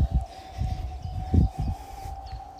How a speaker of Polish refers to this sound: Teraz słychać w tle startujące samoloty z lotniska rekreacyjnego.